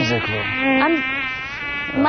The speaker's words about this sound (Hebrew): היתושים, אתה יודע מה, אחי? מי... אה, כאילו, כן הלחץ דם שלך עולה, ואז הם עוקצים, אתה מבין את הקטע?